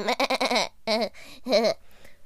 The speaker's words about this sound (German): So, wir sind da. Und hier ist schon mal eine Ziege.